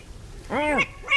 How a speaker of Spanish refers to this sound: Ese es el búho, no sé si se enfadado o no, pero bueno, está ahí como rotezado.